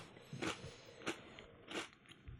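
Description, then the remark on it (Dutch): Crisp crunching as someone bites into a potato chip and chews, with three sharp crunches spaced about half a second apart and quieter chewing between them, no talking. “Jij doet eerst een chipje en dan een slokje bier.”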